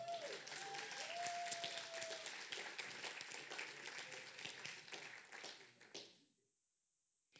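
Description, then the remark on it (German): A crowd applauds for Jesus, with steady, dense, rapid clapping for about six seconds and a few whistles or cheers rising above it. Then the applause drops off abruptly into near silence. “Applaus für Jesus.”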